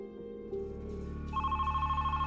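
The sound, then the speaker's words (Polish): A telephone rings as the section head calls, with a steady electronic tone that swells into a brighter, rapidly pulsing warble partway through, fairly loud with no one talking over it. “No i dzwoni właśnie pan kierownik sekcji i mówi, wiesz co, dzwonię do ciebie, bo nastąpił przełom.”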